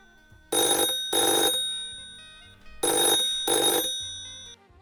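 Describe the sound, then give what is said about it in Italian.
A telephone ringing tone from an outgoing call: two double rings, each pair a quick brrring-brrring, loud, with brief quiet gaps and no one talking. “Mo la chiamo”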